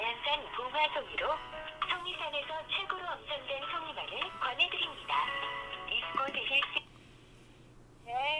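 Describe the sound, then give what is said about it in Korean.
A phone ringback plays as thin, tinny music over the line for about seven seconds while calling a pine mushroom grower to ask the day's prices, then cuts off into near silence before a brief burst of sound at the end. “예, 그 송이 시세 좀 여쭤보려고 전화드렸어요.”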